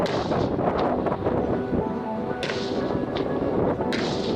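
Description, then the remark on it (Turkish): Heavy weapons fire at a firing range during Turkey's Ateş Serbest 2020 exercise: Turkish-made Fırtına howitzers, Korkut air defense systems, infantry rifles, medium-range anti-tank weapons and kamikaze drones hitting targets; a constant, dense rumble of blasts and wind noise, broken by two sharp, cracking shots, with no voices. “Yerli üretim fırtına obüsleri, Korkut hava savunma sistemleri, milli piyade tüfeği, orta menzilli tank savar silah sistemi ve kargo kamikaze İHA'ları hedefleri tam isabetle vurdu.”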